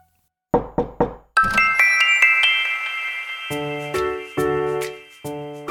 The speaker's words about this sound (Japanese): さあ今回もドアのノック聞こえました